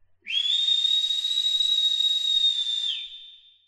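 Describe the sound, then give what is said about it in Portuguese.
A single shrill, piercing whistle holds one steady high pitch for nearly three seconds with a breathy hiss around it, then tapers off abruptly. It is loud, with no voices. “O clima ficou pesado e todos fizeram silêncio, até que de repente ouviram um assobio estridente.”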